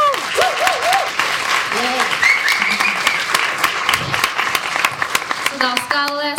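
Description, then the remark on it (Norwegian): An audience claps steadily throughout as a presenter is called up in front of them, a dense patter of many hands at an even loudness, with a few voiced whoops and calls rising over it and a brief pitched tone near the end. “Liten applaus.”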